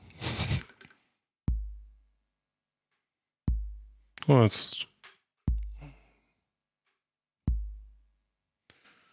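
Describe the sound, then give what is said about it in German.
A synthesized bass drum, patched on a four-step sequencer ring with a hit on every step, thumps four times at a steady, even pace, each hit a deep boomy punch with a quick decay, while a voice speaks briefly between the beats. “genau, wenn wir jetzt in jedem Schritt Bassdrum machen, dann haben wir so diesen ganz normalen Rhythmus.”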